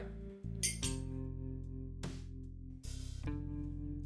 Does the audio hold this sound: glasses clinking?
yes